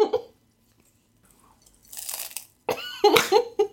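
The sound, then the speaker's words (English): Crunchy Cheetos cheese snacks being chewed close to the microphone, a few loud, crackly bursts of crunching with short pauses between bites, and no talking. “Let me empty my mouth first, because there's Cheetos in there right now.”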